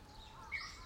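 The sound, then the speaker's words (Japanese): A Japanese bush warbler sings faintly, one short clear whistled phrase rising over quiet outdoor background noise, in the mountains of Nishi-Izu, Japan, where bamboo is being cut. “ウグイス鳴いてますよね入ってますかね多分ねはい”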